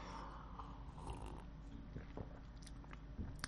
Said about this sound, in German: So, ein Schluck äh, frisches Wasser und dann können wir weitermachen.